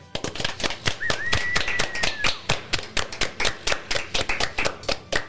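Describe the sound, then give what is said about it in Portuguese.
A round of applause for a friend: brisk, steady hand claps from a small group running for several seconds, with a short whistle rising and holding near the start. “e eu queria que a gente desse uma salva de palmas pro nosso amigo aqui, que ele vai fazer muita falta.”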